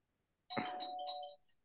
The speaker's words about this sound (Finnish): Nyt joku tulee ovesta sisään. Äh, joku soitti ovikelloa.